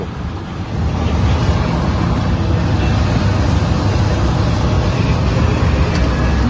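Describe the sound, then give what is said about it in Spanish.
Dense, relentless hailstones, not rain, drum on a car's roof and body, a loud, steady wall of rapid impacts that swells after the first second and continues unbroken, with no voices. “Es todo piedra, piedra, piedra. Vehículo con los parabrisas partidos afuera. Pero es piedra, no es agua, piedra.”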